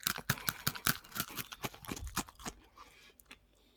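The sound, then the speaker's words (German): Candied grilled grasshoppers being broken apart at a microphone and eaten: a rapid flurry of sharp, brittle cracks for a couple of seconds, then quieter, scattered chewing crackles. “Kinder, ich esse heute keine Schokolade, sondern, vielleicht hört ihr das, Achtung, ich breche das mal hier vom Mikrofon durch und esse das.”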